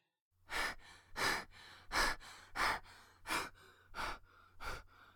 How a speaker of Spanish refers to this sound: La respiración nos recuerda que estamos vivos. Nos recuerda que existimos. Nos recuerda que somos los arquitectos de nuestra propia vida. Cuando respiramos de forma consciente, hacemos que el mundo se detenga.